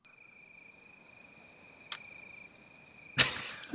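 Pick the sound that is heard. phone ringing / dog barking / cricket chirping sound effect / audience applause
cricket chirping sound effect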